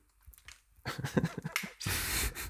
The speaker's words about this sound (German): weißt ja, ich, dein Stuhl hat schon mal solche Geräusche gemacht.